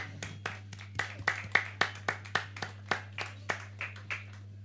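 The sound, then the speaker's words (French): An audience at a broadcast from the Francofolies festival, around the Félix Leclerc prize, applauds Monsieur Davoust in a steady rhythm, roughly a dozen sharp claps spaced evenly over a few seconds, fairly soft, with a constant low electrical hum underneath and no talking. “On peut applaudir Monsieur Davoust.”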